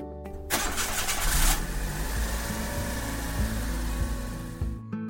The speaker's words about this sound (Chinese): 就这样，豆豆带着疑惑搭上爸爸的车出发了。